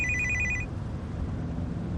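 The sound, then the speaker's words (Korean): A phone rings with a short, bright electronic tone that cuts off after about half a second, over a steady low rumble of road noise inside a car driving on a highway; the call shows on the car's Bluetooth monitor. “할머니가 좋아서 고속도로를 한참 달리는데 전화가 울린다.”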